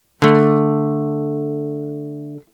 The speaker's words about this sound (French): À tel point que dans le punk et le metal notamment, elles sont au cœur des accords dits de puissance, des accords à seulement deux notes, comme ce Ré5 par exemple